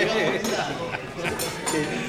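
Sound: glasses clinking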